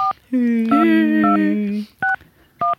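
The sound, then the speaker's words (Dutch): A steady telephone dial tone hums for over a second, then short, evenly spaced touch-tone beeps sound as a number is dialed, clear with no talking. “Ik vind de kiestoon echt is mijn lievelingstoon.”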